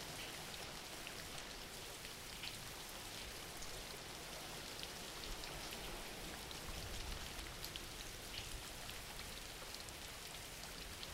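Steady rain falls without pause, a dense, even hiss of droplets spread across the whole range with faint scattered patters on top. No voices or other sounds break in.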